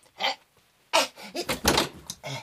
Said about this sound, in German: Ich werde mir nur ein Würstchen holen und es heimlich hier in der Werkstatt zu mir nehmen. Auf geht's. Tür.